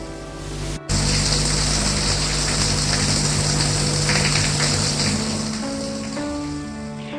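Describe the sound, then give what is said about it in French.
A shower runs in a bathroom with a steady, loud hiss of spraying water that starts abruptly after a brief silence and continues unbroken, with a faint low hum beneath it. “Mais avant, il faut que tu prennes une bonne douche.”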